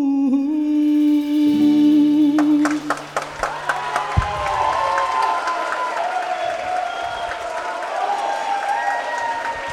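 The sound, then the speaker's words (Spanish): A sustained musical chord fades out as an audience in the main studio auditorium of Radio Nacional, at a special broadcast of Corazón Valiente, bursts into applause, many hands clapping densely and steadily, filling the room and carrying on to the end. “qué lindos aplausos.”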